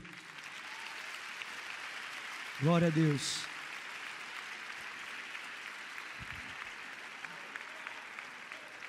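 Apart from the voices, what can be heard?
audience applauding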